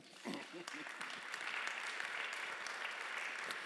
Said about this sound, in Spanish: Un aplauso a mi esposa.